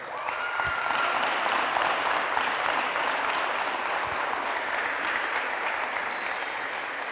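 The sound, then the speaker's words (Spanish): A room full of people applauds steadily for several seconds, a dense, even wash of clapping that holds at a strong level throughout without voices rising above it. “Si les damos un aplauso a ellos, por favor.”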